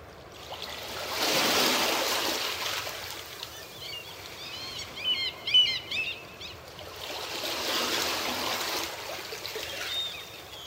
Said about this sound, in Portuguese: A maré está calma. Ouvimos as pequenas ondas quebrando na beira.